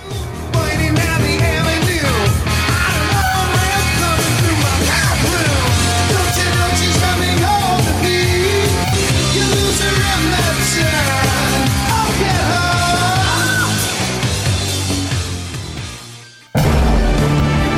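A loud, dense hard rock song with driving electric guitar plays continuously at full volume, then fades briefly and cuts off abruptly before a short burst of different sound near the end.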